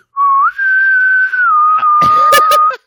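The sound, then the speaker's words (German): A voice imitates sliding doors being pushed apart with a steady, whistle-like tone that rises briefly and then holds for over two seconds, closing with a few sharp, clattering bursts near the end. “Nein, nein, nein, sie schiebt die Türen auseinander. Und, und macht das so.”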